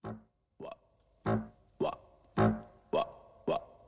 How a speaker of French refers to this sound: nous y entendons guitare, percussion et un semblant de bruit de bouche.